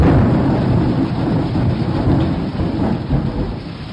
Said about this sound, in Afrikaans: Terwyl hy nog praat, slaan 'n weerligstraal op die grond en sak daar 'n donderstorm oor Mani en Driekie uit.